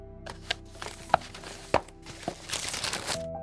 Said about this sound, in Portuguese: Ele pegou e abriu o papel, e para sua surpresa era a antiga carta que seu professor havia mandado à sua mãe.